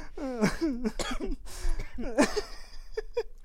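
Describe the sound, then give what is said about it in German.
A person coughs repeatedly from stress in several short, rough bursts, mixed with throat-clearing and strained voiced breaths between them. “Jetzt habe ich so viel Stress, dass ich husten.”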